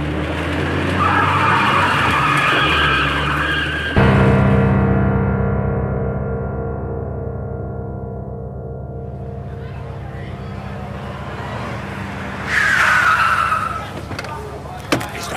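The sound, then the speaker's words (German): A car engine roars as tires screech and skid, then the motor revs steadily while the vehicle speeds off, with another sharp tire squeal near the end. “Na, dann geben Sie mal Gas.”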